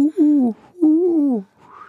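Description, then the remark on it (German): An owl hoots twice in the wind, two drawn-out, slightly falling calls with a short pause between them, fairly clear, followed by a faint rising whistle-like sound. “Nee, da war gerade eine, da war eine Eule im Wind.”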